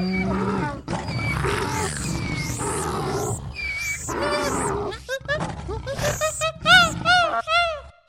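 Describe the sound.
Several voices mimic roaring and growling wild animals, overlapping in a loud, chaotic chorus of rising howls and guttural grunts that continues for several seconds, with no ordinary speech.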